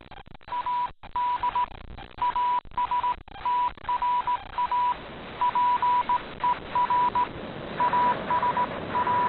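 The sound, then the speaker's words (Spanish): Morse code beeps spelling out an SOS from a ship: a steady, mid-pitched tone keyed in short and long pulses over a continuous hiss of radio-like static, with no one speaking. “es el código de comunicación universal, eh, conocido como clave Morse. Creo que es un SOS, no mm.”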